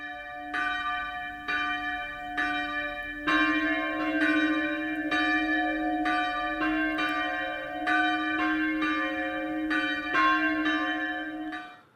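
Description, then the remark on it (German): Several church bells of Wall near Miesbach ring together in a full peal, their strikes overlapping in a steady interlocking rhythm, loud and sustained with rich ringing overtones and no voices. “Da merkt man schon, wie die einzelnen Glocken zueinander einen Rhythmus haben.”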